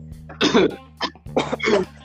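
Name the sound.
imitated wheezing cough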